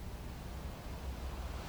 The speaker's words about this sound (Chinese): 打开你的听觉。你听见了海浪拍打着沿岸，此起彼落的声音，就像是生命古老的旋律，都有其周期，有其节奏。